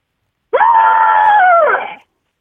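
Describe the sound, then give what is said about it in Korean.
A person lets out a loud, sustained trumpeting call in imitation of the elephant from a beer commercial, one brassy blast of about a second and a half that rises sharply and drops off at the end. “그다음 맥주 광고에 나오는 이제 코끼리.”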